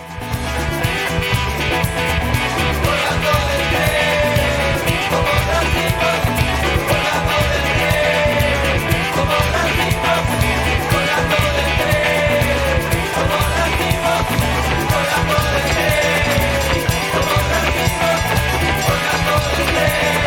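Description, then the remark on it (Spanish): Driving candombe drum percussion pounds steadily through a full, loud piece of music, its rhythmic beats repeating without pause and no voices on top. “Escucha la percusión ahí, candombe.”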